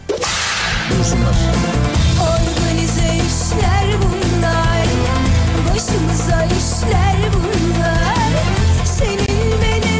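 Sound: whip crack sound effect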